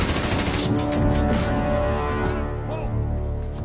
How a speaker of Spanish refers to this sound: Mientras avanza escucha cómo disparan las ametralladoras encima de él, pero cuando sube, los disparos cesan.